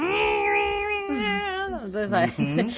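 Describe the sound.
A single voice imitates a dial-up modem connecting to the internet over a home telephone line: a long, steady, nasal electronic tone that bends and warbles, then breaks into quick chirping, squealing sweeps, fairly loud.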